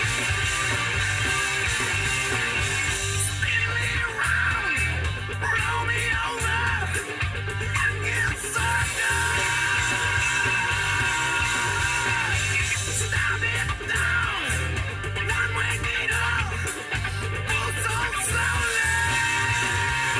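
A loud, dense grunge rock song plays continuously, with heavy drums pounding steadily beneath distorted guitars and a raw, screamed vocal straining over the top throughout.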